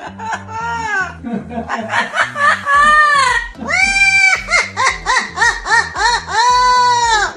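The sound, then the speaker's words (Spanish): A parrot lets out a long, manic cackle imitating the laugh of the Joker, the Batman supervillain, rising and falling in strained, bleating bursts that run almost continuously for several seconds, loud and with no other voices. “Un loro se volvió viral en redes sociales por reírse como uno de los supervillanos de Batman, el Joker.”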